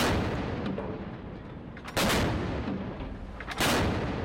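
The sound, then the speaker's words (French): Heavy artillery fire from Russian Northern Fleet warships during combat training in August 2023: two big booming blasts a couple of seconds apart over a constant roaring, rumbling background, with sharper cracks in between. No voices. “Vous entendez des bâtiments de la flotte russe du Nord en train de s'entraîner au combat en août 2023.”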